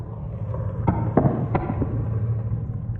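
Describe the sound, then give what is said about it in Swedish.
Crackling and popping from something roasting with spices in a pan as the water boils off: several sharp, irregular pops over a steady low sizzling hum, with no talking. “Man märker att man är nära när det börjar knastra så här.”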